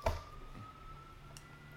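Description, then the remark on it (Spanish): A faint ambulance siren, the fourth ambulance to pass, holds a steady tone outside, briefly preceded by a soft knock, with no one speaking over it. “Cuarta ambulancia.”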